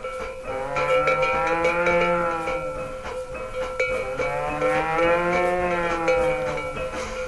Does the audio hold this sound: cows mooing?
yes